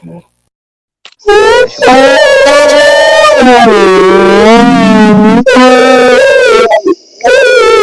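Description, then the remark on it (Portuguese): A person imitates a humpback whale's song with long, loud, wavering vocal moans that slide up and down in pitch, broken by a few short pauses. “mandaram imitar uma baleia jubarte aqui, tá bom?”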